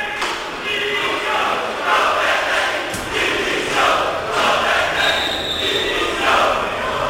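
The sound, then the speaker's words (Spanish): A large crowd of Sevilla fans at the gates of the Sánchez Pijuán stadium chants loudly for coach Lopetegui's resignation in a steady, repeating rhythm, voices swelling together with each phrase, a dense roar throughout. “Gritos de Lopetegui dimisión, En ese momento llegaba la policía para, eh, repito, disolver a ese pequeño grupo de aficionados que estaban apostados aquí en esta, en esta puerta.”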